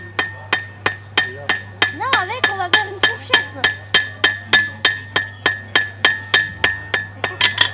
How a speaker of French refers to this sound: Parce que là, mon enclume, elle sonne pas très fort. Si j'enlève la feuille de plomb qui est en dessous, là, ça va faire du bruit.